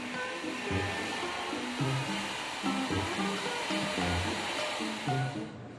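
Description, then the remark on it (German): A hair dryer blows steadily with a loud, even whooshing roar that runs the whole time as a man styles his moustache, while a low musical tune plays faintly underneath. “Er zupft, zieht, dreht und föhnt.”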